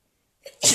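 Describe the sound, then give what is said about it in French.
A single sharp, loud sneeze, with a quick indrawn breath just before the explosive burst of air, all within under a second. “à tes souhaits, ceci serait gardé au montage.”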